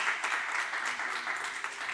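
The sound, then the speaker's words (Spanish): Steady audience applause for Olivia, a dense continuous patter of many hands clapping at an even loudness for the full two seconds, with no voices standing out. “Un aplauso para Olivia.”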